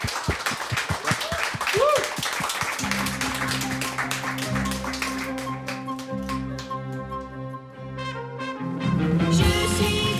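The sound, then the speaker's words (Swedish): Steady, rhythmic hand claps, applause thanking the group Stöd och Resurs, ring out for about three seconds before a musical tune starts and carries on to the end. “Så att, en stor applåd och tusen tack till Stöd och Resurs.”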